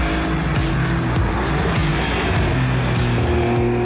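A Porsche 911 Dakar sports car engine drones loudly, its revs rising and dropping through several gear shifts, with road and tire noise underneath and no voices.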